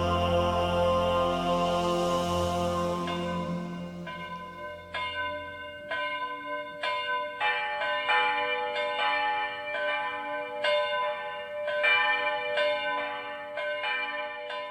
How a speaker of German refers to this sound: Am dritten Advent luden die Glocken ein zu einem besonderen Gottesdienst – denn nun wurde das neue Kreuzfenster enthüllt.